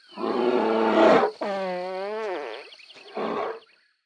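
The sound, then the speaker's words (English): A bear farts with a loud, rasping low blast, then lets out a long wavering groan and a short final grunt, with no one talking. “It's like in this recording, this bear farts and like enjoys it thoroughly afterwards.”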